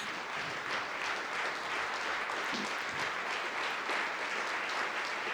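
Sustained applause from a large theater audience at the curtain call at the end of a play, a dense, steady patter of many hands clapping at once, continuing without a break throughout at an even, moderate loudness.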